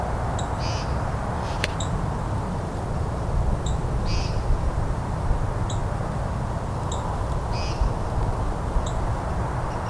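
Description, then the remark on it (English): White-throated sparrows give faint, high, thin call notes at scattered intervals, very quiet beneath a steady wash of outdoor background noise. “hear some white-throated sparrows calling too now.”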